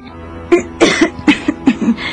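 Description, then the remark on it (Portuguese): A fit of persistent coughing from a weakened woman, a cough that has troubled her for some time: about half a dozen harsh coughs in quick, uneven succession, some doubled up, with no talking around them. “É, é uma tosse impertinente que me persegue há algum tempo.”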